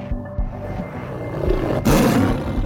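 A tiger roars angrily in a deep, rumbling growl that swells louder partway through, then surges into a harsher, fuller roar near the end, with no talking.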